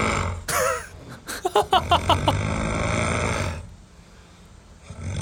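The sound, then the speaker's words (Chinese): A man snores loudly while asleep at a home, recorded from at least 1.5 metres away on the other side of the room, volume adjusted afterward: a harsh, rattling breath with rapid fluttering pulses and throaty gurgles that runs for about three seconds, then drops to quiet breathing. “补充一下，此段打呼音档有进后期做调整音量。”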